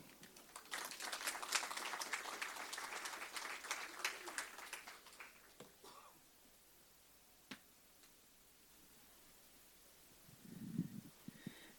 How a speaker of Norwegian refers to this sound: Tusen takk for et lærerikt eh, innlegg. Og en applaus til